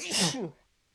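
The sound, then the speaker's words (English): A single loud sneeze bursts out with a sharp, breathy rush and a brief voiced edge, then quickly fades to near silence. “Bless you”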